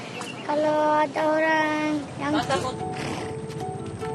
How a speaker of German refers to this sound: Auf Sumba wird es langsam Abend. Am Strand drehen die Pferde ihre Runden.